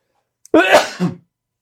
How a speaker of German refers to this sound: Jetzt muss ich gerade, ich muss mal kurz niesen.